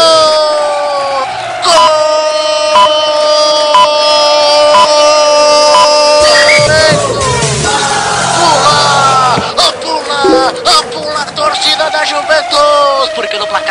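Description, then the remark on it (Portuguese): A crowd of Juventus fans roars in loud, sustained celebration of Morata's equalising goal against Barcelona, with a man's voice shouting and calling excitedly over the noise throughout. “é agora, pode pular, a torcida da Juventus”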